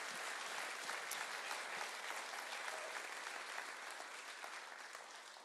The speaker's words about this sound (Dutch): Dus zullen we God een heel groot applaus geven om Hem te eren. Dank u Heer. Dank u Heer.